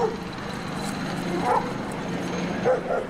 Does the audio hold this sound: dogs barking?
yes